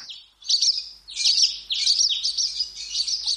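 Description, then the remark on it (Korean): A skylark high in the sky before daybreak sings a rapid, continuous stream of high, bright warbles and trills, steady and unbroken, with no voices and only a faint low hum underneath. “날이 채 밝기도 전에 벌써 종달새가 하늘에 높이 떠서 은방울을 흔들기 시작하였습니다.”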